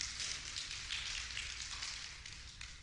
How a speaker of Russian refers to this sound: Дайте ему громкие аплодисменты.